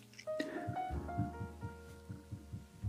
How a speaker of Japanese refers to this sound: この音聞こえるかなあの、今、マイクアームをトントントントン叩いてたんですけど